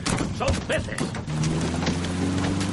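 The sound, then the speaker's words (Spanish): Hundreds of fish rain down and pelt a car's windshield and the road as it drives through a blizzard, in a rapid, irregular barrage of heavy thuds and splats, with a low steady engine drone joining partway through. “Algo se estrella contra el parabrisas. ¿Pero qué narices ha pasado? Llueven cientos de peces que caen sobre la carretera.”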